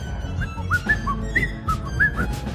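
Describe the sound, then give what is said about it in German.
A short melodic whistled line of about seven or eight quick notes, bright and clear, played over a steady low-end music bed with no voices. “Kannst du das pfeifen?”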